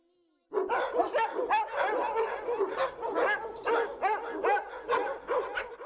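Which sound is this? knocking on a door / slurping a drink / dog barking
dog barking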